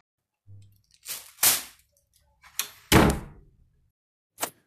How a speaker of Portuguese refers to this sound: vai para seu quarto, batendo a porta com força.